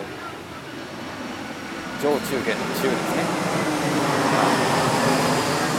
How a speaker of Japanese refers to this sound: 飛行機が通ってますね 僕ちょうどねあの飛行機の通り道で飛行機が好きな方はね真下から飛行機を撮ることができるので是非ともしていただきたいところですけれども